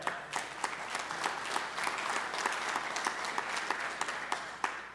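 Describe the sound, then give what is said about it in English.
Steady applause from an audience, many hands clapping together in a dense, continuous patter with a few sharper claps standing out, sustained for the whole stretch without any voices. “And y'all don't clap for me, you clap for God because He's the one that resurrects lives.”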